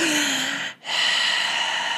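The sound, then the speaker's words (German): A voice imitates heavy breathing: a long, loud, airy breath, a brief pause, then another drawn-out raspy breath, with no words. “Aber dann, ich habe die ganze Zeit dieses Atmen gehört und ich war wirklich wach, Leute.”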